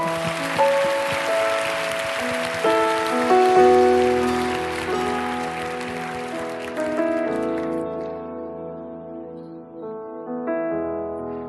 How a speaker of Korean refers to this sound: 할렐루야. 한 번 더 하나님께 감사와 영광의 박수 올려드릴까요?